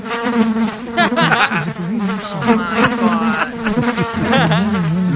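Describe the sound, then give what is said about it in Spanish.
A fly buzzes loudly for several seconds, its droning hum wavering up and down in pitch without pause. No one speaks. “Hablando de la mosca, Choco, este, yo empecé a ver el debate y que veo, cuando vi la mosca ya no la vi a gusto.”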